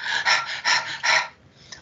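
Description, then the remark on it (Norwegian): A person imitates the rapid, shallow breathing of a patient with dyspnea, about four quick breathy puffs in steady rhythm, fairly loud, then trailing off into a faint breath. “Det bidrar også til økonomisering av respirasjonsarbeid, fordi dyspnø arter seg ofte slik at pasienten puster veldig rask og overfladisk.”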